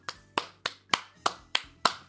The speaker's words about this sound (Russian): Аплодисменты Ивану.